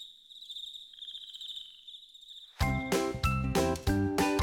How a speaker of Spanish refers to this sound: Llega a nuestra nariz el dulce aroma de las flores y se oye en el canto de los grillos y de las ranas.